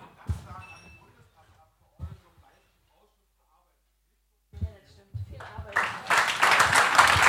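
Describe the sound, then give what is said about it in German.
A voice speaks briefly with pauses, then an audience at the close of a debate evening in Germany breaks into loud, dense applause, many hands clapping in a steady wash that keeps building until the end. “Das glaube ich auch ein Applaus wert, ja.”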